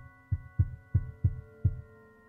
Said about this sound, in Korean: 아버지의 화가 수그러들기 무섭게 위층에선 다시 발소리가 들려왔다.